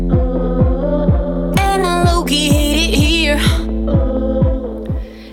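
A loud pop song with a steady, pounding bass beat about twice a second, a sung vocal line rising and bending over the middle stretch, and dense synth layers throughout.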